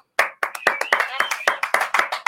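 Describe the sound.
A short burst of applause, with loud, quick hand claps landing in a steady, even rhythm and a voice or cheer mixed in beneath them.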